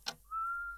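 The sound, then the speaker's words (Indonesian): A person whistles a single steady, held note after a brief soft click, clear, with no talking, inside a house. “Benar, itu suara orang bersiul.”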